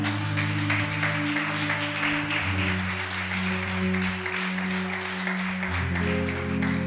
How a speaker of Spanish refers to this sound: Dale ese aplauso al Señor.